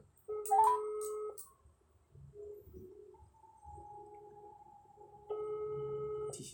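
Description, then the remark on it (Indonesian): A phone line ringing back while waiting for an answer: two steady electronic ring tones about four seconds apart, with a faint hum and low background noise in between. “Ini gue telepon udah.”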